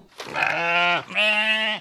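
Two loud sheep bleats in quick succession, each a wavering, nasal cry lasting under a second with a short gap between, heard alone with no talking.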